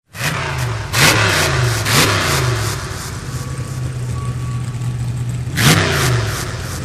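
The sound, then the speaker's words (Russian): Loud engines of 14 monster trucks rev hard in bursts to greet the crowd before a race, with sharp throttle blips near the start and again toward the end over a steady, throaty idle rumble. “Давайте же поприветствуем наших участников ревом моторов и пожелаем им удачи!”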